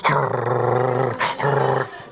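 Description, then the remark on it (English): A person imitates a dog with two drawn-out, growling barks, the first long and the second shorter after a brief gap, loud with no other talking. “That one and my dog bark”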